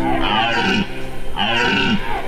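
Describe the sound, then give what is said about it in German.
Two long, deep guttural roars in a row from red deer stags during the rut in the Danube floodplains of Serbia, each a drawn-out bellowing groan with a rough, grunting texture, loud, with no talking. “das Röhren der Hirsche halt durch die Donauauen.”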